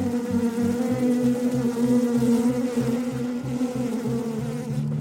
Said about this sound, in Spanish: Estábamos envueltos en la neblina que producía el humador, con miles y miles de abejas zumbando por todos lados.